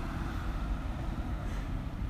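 A steady, low rumble of traffic outside, holding at an even level throughout with a faint hiss on top. No voices or other distinct sounds stand out.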